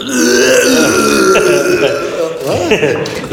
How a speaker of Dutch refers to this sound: Ik ga het zetten op, ik ga het op, eh, op kotsgeluid.